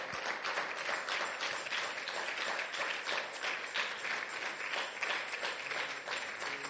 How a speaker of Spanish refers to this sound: Amén. Gloria a Dios. Démosle un fuerte aplauso a nuestro Señor.